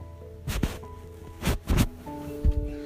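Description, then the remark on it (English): Several short bursts of rustling and shuffling as the speaker's cat, Daniel, moves about a room, coming in irregular clusters against a quiet background with a faint steady hum. No one speaks. “It's my cat Daniel.”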